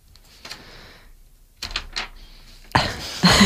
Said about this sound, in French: C'est ma feuille dans la table de mixage.